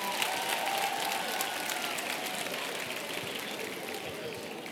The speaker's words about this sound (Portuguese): Olha a mulherada, só a mulher está aplaudindo. Olha lá.